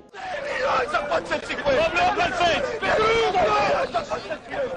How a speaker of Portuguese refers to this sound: Né? Lembra aquela ideia, aquele imaginário popular de que a bolsa de valores é uma tremenda gritaria,